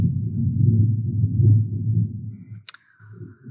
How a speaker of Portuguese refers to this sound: Ai, mais um trovão.